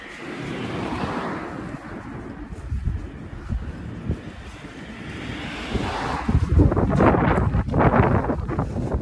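Steady wind buffets the microphone outdoors while walking from home to the nearest train station in Japan, a broad low rumble with gusty surges that grow stronger and louder toward the end, and no voices present.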